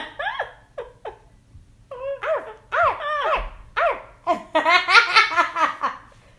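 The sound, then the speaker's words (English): A person's voice imitates a big dog barking in a rapid series of short, yelping arfs and woofs, growing louder and more excited toward the end. “Bark like a dog. Woof, woof, woof. A big dog.”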